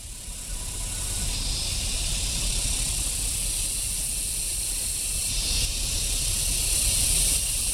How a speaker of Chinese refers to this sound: 国家农业公园内，蝉鸣声此起彼伏。